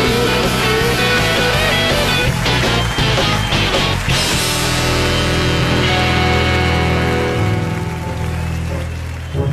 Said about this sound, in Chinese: 现在是大明脱口秀时间，掌声欢迎我们敬爱的大明！